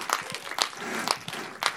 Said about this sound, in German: Da vielleicht nochmal einen kurzen Applaus an unser tolles Podcast-Team